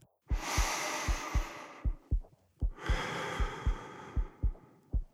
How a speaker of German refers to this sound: Mein Herz ist außer Kontrolle. Es ist soweit. Desto näher ich der Beichte komme, desto lauter wird mein Puls. Desto zittriger die Stimme und meine Hände.